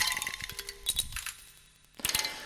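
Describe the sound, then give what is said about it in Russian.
Glacier ice creaks and cracks inside an ice cave deep in the mountains of Spitsbergen (Svalbard) in the Arctic, with sharp clinking snaps, bright metallic pings and a faint hum between them. The sounds are quiet, and no one speaks. “Так звучит лед в ледяной пещере глубоко в горах на острове Шпицберген.”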